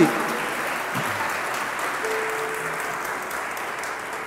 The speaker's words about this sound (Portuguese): Se você crê, aplauda Ele, dá grito de aleluia.